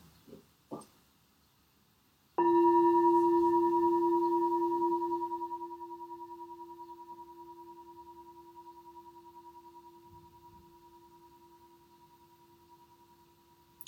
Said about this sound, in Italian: Abbiamo ascoltato la campana in quanto esempio di oggetto che a un certo punto nasce, il suono, permane e poi scompare. Possiamo farlo ancora. e quindi osserviamo la campana e osserviamo il Dhamma che è implicito nel suono della campana.